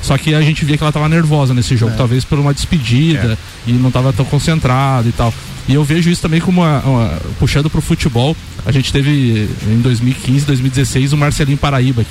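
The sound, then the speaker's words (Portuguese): Steady heavy rain hisses in the background, heard through the wide-open windows of a studio, beneath continuous conversation between people talking. “Cara, esse barulho que você está ouvindo aí é de chuva, chuva viu, gente?”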